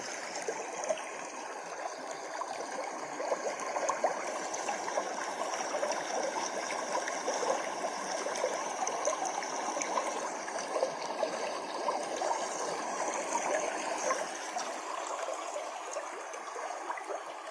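Steady rushing of a flowing stream, a dense, even wash of water noise that continues unbroken throughout, with no voices over it.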